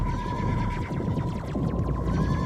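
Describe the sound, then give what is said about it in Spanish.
Several horses neigh in quick succession as they come along at 6 in the morning, their shrill, falling whinnies overlapping over a low rumbling background and a steady faint hum, continuous throughout. “Ahí vienen los caballos.”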